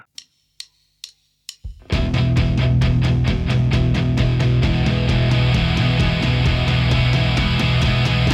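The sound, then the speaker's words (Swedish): Four sharp clicks count in, then a loud, full band kicks in with a steady driving beat and sustained chords: the instrumental intro of a new pop song about three and a half minutes long, with no singing yet. “gjort en ny låt.”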